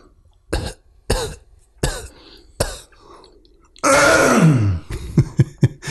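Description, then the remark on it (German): A person coughs several times in sharp bursts, then clears the throat with a long, harsh rasp followed by a few more quick coughs. No talking. “Wenn der Hund sich beruhigt hat, dann geht es auch gleich weiter. und … keinen Husten mehr hat”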